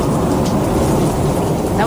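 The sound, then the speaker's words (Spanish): Steady, dense roar of heavy rain from a thunderstorm with a deep low rumble underneath, loud and continuous throughout, with no break in the downpour. “Ah, bueno, la tormenta.”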